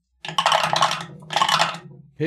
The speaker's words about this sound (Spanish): Como estamos usando dados de 10, vas a tirar, en este caso, tus 5 dados para escapar.